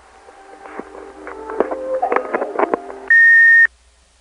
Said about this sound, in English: Listen to the hang up and you'll hear a relay ring sound which is a telltale sign that they have a telco provided key system.